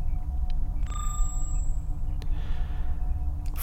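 A brief electronic alert tone, a body resources deficiency notification: a single bright beep with a ringing overtone sounds over a steady low mechanical rumble, with a few faint clicks around it.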